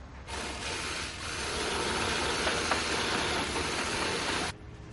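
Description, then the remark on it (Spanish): A construction worker's power drill grinds into a wall of a building under construction in one continuous, loud burst lasting about four seconds, with a harsh, gritty mechanical whir that starts and stops abruptly and no voices. “Taladra una pared.”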